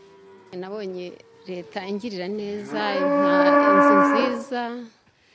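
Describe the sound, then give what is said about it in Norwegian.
A cow in Rwanda moos several times, a few short calls followed by one long, loud, drawn-out bellow that fades out near the end. “Den første kalven kua får, skal gis videre til en familie som ikke har noen ku.”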